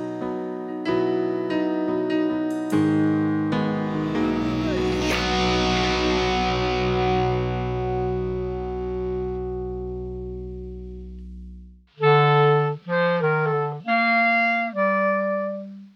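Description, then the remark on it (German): A short burst of electronic music played by a studio house band: a few choppy synth chords, then a long sustained distorted chord with a deep bass drone that slowly fades, followed by several stabbing chords, no vocals. “Hm, wie immer an dieser Stelle ein Song unserer Hausband”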